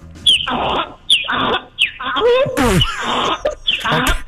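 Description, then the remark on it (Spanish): A person imitates a donkey's bray, with a rapid series of loud, strained honking calls that rise and fall in pitch in a rough hee-haw rhythm. “Está, bien, oye, oye el burro, el burro.”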